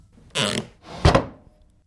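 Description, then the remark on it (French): A wooden drawer squeaks and scrapes in two short bursts, the second slightly longer and ending with a soft knock, with nothing else around it. “Le tiroir couina.”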